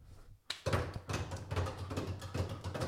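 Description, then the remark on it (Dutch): A person imitates the call of a jack snipe with a steady run of soft, muffled knocks, rhythmic like distant galloping hooves. “Perfecte imitatie van het bokje, dat kan niet eh, anders.”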